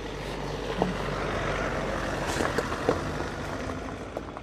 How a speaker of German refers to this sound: so jetzt kommt ein Auto.